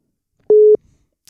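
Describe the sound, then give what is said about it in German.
A single steady electronic telephone ringing tone sounds for about a quarter second, a flat mid-pitched beep standing alone, followed by faint rustling and a brief soft click. “Es klingelt.”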